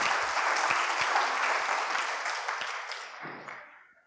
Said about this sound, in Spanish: Muy bien, un aplauso para Esaú y Jacob. Gracias.